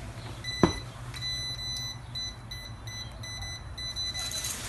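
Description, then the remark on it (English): A voltage tester beeps rapidly near a live wire as breakers are switched on and off at a panel to identify the wire: a quick steady series of high electronic chirps repeating for several seconds after a brief click, clear with no talking. “but if you have somebody standing at a panel and you're trying to identify a wire, they can turn breakers on and off, and this thing will just start beep, beep, beep, beep, beep, beep, beep beeping at you.”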